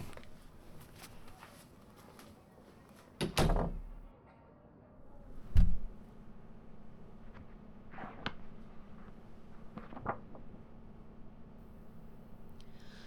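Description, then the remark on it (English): An office door is shut: a heavy thump followed a couple of seconds later by a sharper click, with a quiet room hum and faint shuffling before and after. “Can you go wash the front and shut my office door?”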